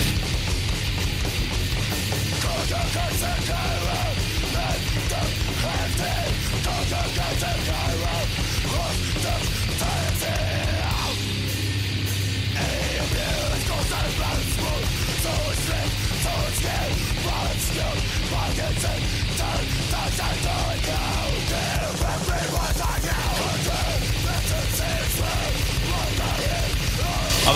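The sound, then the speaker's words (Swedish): A relentless grindcore metal track blasts at full volume, with fast pounding drums, a wall of distorted guitar and harsh shouted vocals, dipping briefly in the middle before charging on. “kan ju höra …-vibbarna, men det är sången som, eh, som gör att det låter inte riktigt hundra som den”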